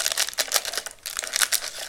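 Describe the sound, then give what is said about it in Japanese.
Plastic packets of dried toppings and powdered soup from an instant cup noodle crinkling, a steady run of bright, crackly rustles with several sharper bursts and a brief lull midway, with no voices. “なんか袋が入ってるぞこれ火薬と粉末スープが入ってるね両方とも先に入れるやつだねこれね珍しいなこのカップタイプだとねこの火薬とか最初からさもうばらまかれていることが多いじゃん別の袋になって梱包されてます”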